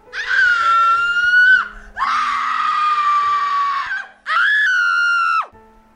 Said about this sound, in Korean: 그 여자분이 소리를 있는 대로 크게 질러대며 그 형의 이름을 부르면서 제발 들어가지 말라고 울고 불고 생 난리를 치는 게 아니겠습니까?